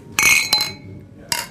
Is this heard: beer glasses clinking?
yes